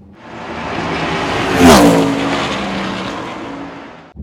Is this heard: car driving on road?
yes